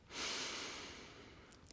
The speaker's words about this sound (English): Take a deep breath.